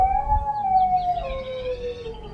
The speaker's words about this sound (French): Un beau soir, un chien se posta devant la boutique du barbier et se mit à hurler à la mort.